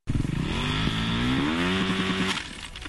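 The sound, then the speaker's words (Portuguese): A motorcycle engine revs hard, its loud buzzing tone climbing in pitch over a couple of seconds before cutting off abruptly, with no voices. “Deu problema no motor? O que você precisar para sua moto”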